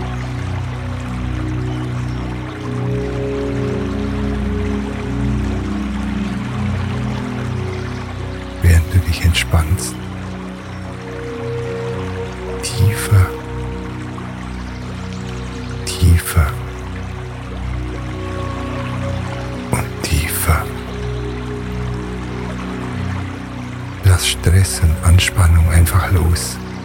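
The Rohini River flows in a steady, even rush, broken every few seconds by brief louder splashing surges, with a low sustained hum running underneath throughout.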